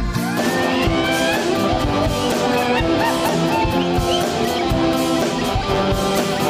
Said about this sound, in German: Die totale Blasmusik aus Oppershofen.